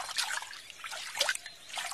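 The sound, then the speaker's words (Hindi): Water trickles and splashes steadily for a couple of seconds as a boy who has just woken up washes his face with water from a lota, a small water pot. Fairly soft, with no voices. “अपनी आंखें मसलते हुए वो बाहर निकला और लोटे में पड़े पानी से अपना मुंह धोने लगा”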